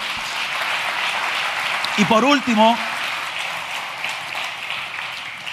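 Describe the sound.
Steady audience applause fills the whole stretch, a dense hissing wash of many hands clapping at once, while a man briefly speaks over it partway through.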